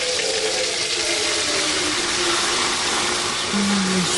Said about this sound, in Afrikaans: Spuit 'n bietjie seep in die emmer. Hmm. En dan maak jy die emmer vol water.